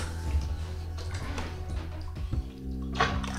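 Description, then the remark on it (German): Water drips and sloshes in a bathtub as a person sitting in lukewarm bathwater begins to get out, with small splashes and trickles over a low hum, plus a brighter splash near the end. “Oh, jetzt Na? muss ich mal langsam raus, glaube ich.”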